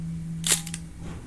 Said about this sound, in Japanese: フィルムを一枚一枚こうレバーでこうガシャッと、え送る作業が必要なんですね、えそれはこんこんな音です、はい、そしてシャッターを切る音が